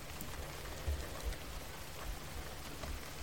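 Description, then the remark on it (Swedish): Soft, steady rain patters continuously, a broad hiss of fine drops with a low rumble underneath, fairly quiet and even throughout, with no voices. “Vänder ansiktet upp mot himlen och låter de mjuka regndropparna möta ansiktets hud.”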